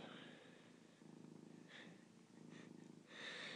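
A domestic cat purrs steadily, a low rumbling vibration that rises and falls with each breath, loud and continuous with soft breathy inhales between cycles.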